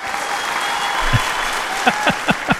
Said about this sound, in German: Gut, das war, das war der kurze Applaus, der kurze stürmische.